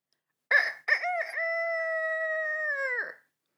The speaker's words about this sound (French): C'était en, on était en voyage dans une ferme. Il avait enregistré le coq, donc et après il faisait, il, faisait play pour que le coq se réponde.